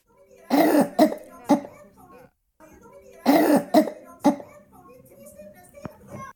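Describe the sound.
A voice imitates a five-year-old girl's deep, phlegmy cough: two rounds of three harsh, rasping bursts each, loud, separated by a short pause and trailing into quieter throaty noises.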